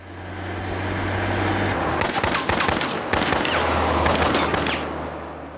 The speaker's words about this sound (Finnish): Ehkä myös laukaukset ja räjähdykset olivat minulle koukuttavia aistinautintoja.